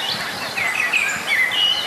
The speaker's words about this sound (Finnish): Solistina Mustarastas ja Punarinteis tietenkin hanhet taustalla. Kyllä, ja Mustarastas on ihan mikrofonin lähellä.